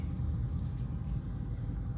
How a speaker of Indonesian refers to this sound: macet banget cuy parah sampai berhenti macetnya ini gue yakin ada pemeriksaan sih kayaknya ada pemeriksaan sih